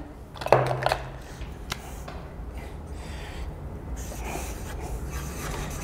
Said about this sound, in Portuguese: vou pegar outra caneta aqui já.